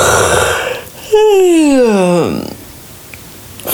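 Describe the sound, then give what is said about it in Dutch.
A single drawn-out yawn: a breathy intake, then a loud voiced sigh that slides steadily downward in pitch for about a second before trailing off into quiet. “Even wil ga je gapen.”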